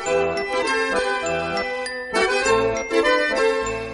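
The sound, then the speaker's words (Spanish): A pretty, tinkling melody of bright bell-like notes plays steadily and clearly, with no voices, a gentle lilting tune with shimmering high tones and soft lower accompaniment, opening the Musique section of La Biblioteca Perdida. “con esta bonita melodía que podéis escuchar comienza una de las nuevas secciones de la Biblioteca Perdida, Musique.”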